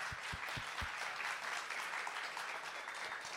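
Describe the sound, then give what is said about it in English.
A crowd at an event bursts into steady applause, a dense wash of many hands clapping at full volume, with a few sharp individual claps standing out near the start. “Let's give them a round of applause for everything.”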